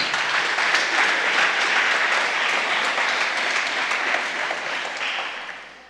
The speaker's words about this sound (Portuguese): Pode aplaudi-lo nessa noite.